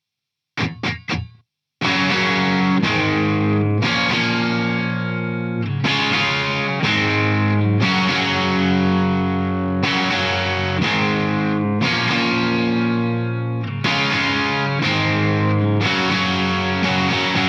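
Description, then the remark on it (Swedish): A Gretsch 'Malcolm' electric guitar, strung with an original 10 set, plays through heavy distortion: a few quick muted stabs, then loud, sustained chords ringing in a steady rhythmic pattern with bright, gritty overtones. No one speaks. “Där finns det en Malcolm-gitarr också va?”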